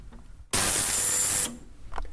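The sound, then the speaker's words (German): A piece of amber drops into a soapy cleaning bath of water heated to 98 degrees, to clean out polishing paste, setting off a sudden loud, bright hissing fizz that lasts about a second and cuts off abruptly, leaving faint background noise. “Und dann kommt da eine Seifenlauge rein. Ja. Ein Cleaner.”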